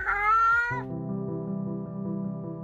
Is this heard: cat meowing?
yes